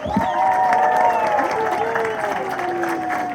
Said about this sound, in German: Großen Applaus an die Personen.